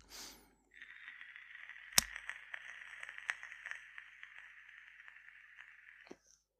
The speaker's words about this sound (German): ich rauche ja seit langer, langer Zeit nicht mehr, um dich mal zu korrigieren, würde dich das denn stören, wenn ich jetzt ein bisschen dampfe?